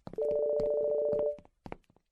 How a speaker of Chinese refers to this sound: 就在地下的停车场里，可心的手机响了，